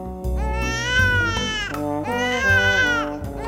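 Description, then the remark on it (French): A baby girl cries and wails loudly, two long strained bursts with a brief catch of breath between them, the high harmonic sobs rising and falling. “Ses parents et les animaux s'occupent beaucoup de sa petite sœur qui pleure, qui crie, qui demande de l'attention.”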